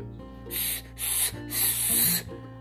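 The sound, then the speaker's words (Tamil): A voice imitates a snake's hiss in three breathy bursts, the last one longest, a steady sharp sibilant sound with no words spoken. The snake hisses now and then to frighten a newly hatched parrot chick. “அப்படின்னு அப்பப்ப சத்தம் கொடுத்து பயமுறுத்திக்கிட்டு பாம்பு அங்கதான் இருக்கு”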